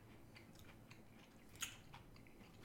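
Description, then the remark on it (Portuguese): Quiet chewing of food with soft repeated mouth sounds and small crunches, one sharper crisp bite standing out near the middle, no one talking. “Vai falando que eu tô mastigando aí.”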